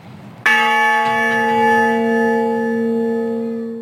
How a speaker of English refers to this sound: the honor bell tolled 400 times in the past year, and Oliveira is with us on this Memorial Day.